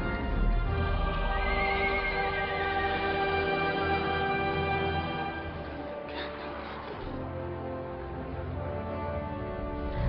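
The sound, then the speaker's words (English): In a film clip, a white horse with a rider whinnies loudly over the steady clatter of galloping hooves, with a dense, sustained wash of sound underneath. The sound stays full for the whole stretch, with no talking. “I hope you, you, can, you can cheer, you can clap after clip, because just as all hope seems lost, a rider on a white horse appears.”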